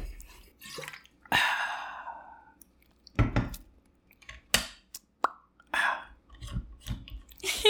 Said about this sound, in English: that was a very satisfying drink sound.